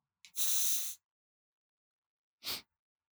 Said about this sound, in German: Warte mal, ich, ich sprühe mir mal kurz Deo in den Mund.